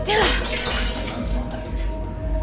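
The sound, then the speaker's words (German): A woman empties her drinking glass and hurls it in a pub; it smashes loudly, a bright burst of shattering followed by tinkling shards and a lingering ringing, with background murmur of voices. “Ein Glassplitter bleibt in ihrer Schuhsohle stecken.”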